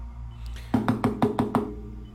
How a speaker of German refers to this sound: Ähm, jo, dann würde ich mich mal überbeugen und mit den Fingern gegen diese Glasscheibe klopfen.